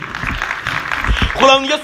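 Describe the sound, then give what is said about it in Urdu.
A crowd breaks into steady, dense applause, many hands clapping at once, with voices mixed into the noise and a raised voice ringing out near the end. “آمین آئیے اس کے لیے زوردار تالیاں بجائیے”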